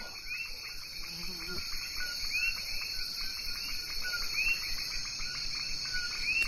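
Early evening farm ambience: a dense, steady drone of insects and crickets, with short rising chirps repeating every second or so and a faint low rumble beneath, no voices.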